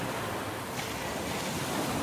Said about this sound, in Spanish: Las olas están demasiado altas.